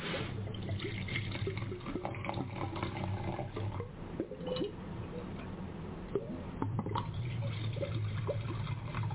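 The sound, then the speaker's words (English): Wine glugging as it pours out of a circular bottle with several internal chambers, a steady run of irregular gurgles and splashes lasting several seconds over a low background hum. “This bottle pours really obviously.”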